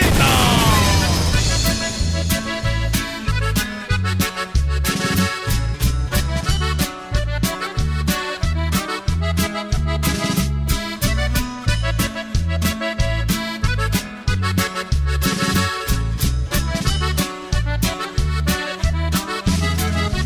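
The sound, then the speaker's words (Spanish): Loud, upbeat music plays continuously, driven by a steady pounding beat with sharp rhythmic hits over full, layered instrumentation that stays close and even in volume throughout. “Señoras y señores, Julio Montes grita musiquita.”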